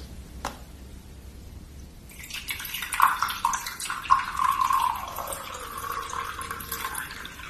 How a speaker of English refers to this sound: Just pour some water while it's nice and hot.